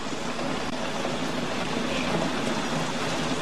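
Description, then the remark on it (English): Heavy rain pours down in a dense, steady hiss, loud, with no letup and no voices over it. “Right now, it's pouring rain.”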